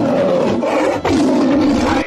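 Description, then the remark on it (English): A tiger roars loudly, two long, rumbling, throaty bursts split by a brief catch of breath, with no voices around it. “razor-sharp claws, which, with a single swipe, can down a full-grown deer. Tiger”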